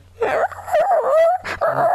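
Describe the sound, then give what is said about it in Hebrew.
A human voice imitates a hurt dog's whimper: several high, wavering whines in quick succession, fairly loud, with brief breaths between them and no other sound around. “עושים ככה כלב פגוע.”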